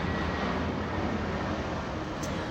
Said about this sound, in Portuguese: Está a passar um avião.